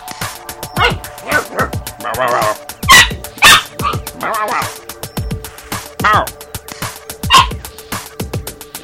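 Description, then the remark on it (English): A nine-week-old lab puppy named Jet, chewing a bone, barks over and over in quick, irregular bursts, loud and sharp, with a few higher yips and whiny notes mixed in between the barks. “We good? chewing a bone. What you doing?”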